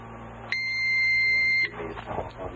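A blood glucose meter timer gives one sustained electronic beep on reaching 70 seconds, steady and shrill, lasting about a second. Brief faint talking and low background hum follow it.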